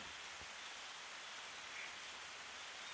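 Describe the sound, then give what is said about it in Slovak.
Steady rain falling, a dense soft patter of raindrops with one brief single drop tap early on, continuous and fairly quiet with no voices. “kým budeš počúvať tieto dažďové kvapky.”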